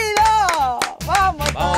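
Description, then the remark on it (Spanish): Loud applause with sharp clapping bursts welcomes a guest, ringing out over a bright, sustained musical jingle, both running together through the short moment. “¡Un aplauso! ¡Bienvenido!”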